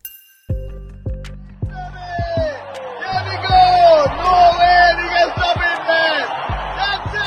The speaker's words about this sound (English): That's the sound of the moment Sri Lankan protesters stormed the president's office last week. They took over the presidential palace, too.